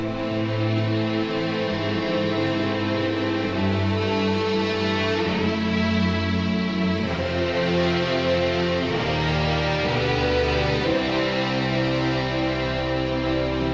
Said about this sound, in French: C'est un arrangement pour cordes, extrait d'une chanson très connue.